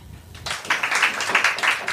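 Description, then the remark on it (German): An audience, asked to clap if they dislike the word "Heimat", breaks into applause after a brief quiet start, many hands clapping in a dense, irregular patter that stays fairly loud and steady. “Ich würde sagen, es haben ein paar mehr beim zweiten Mal geklatscht.”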